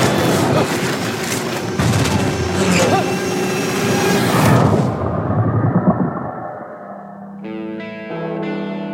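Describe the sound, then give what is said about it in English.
Loud, sustained roaring blasts and deep rumbling of planes being blown out of the sky churn for about six seconds, then fade as a bright, tonal musical chord takes over. “It's planes getting blown out of the sky.”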